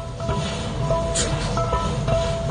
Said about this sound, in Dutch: Het regent hard en er ligt veel water op straat. In het midden van de weg liggen van die grote ronde putdeksels. En die maken dit geluid.